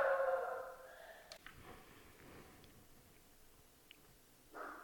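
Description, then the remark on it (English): Two dogs barking, faint and muffled: a drawn-out burst at the start, then quiet, then another short bark near the end. Nobody is talking. “you may have just heard Jack and Harley barking”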